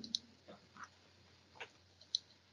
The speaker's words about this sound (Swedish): Så tar jag och klickar fram nästa lilla videosekvens här.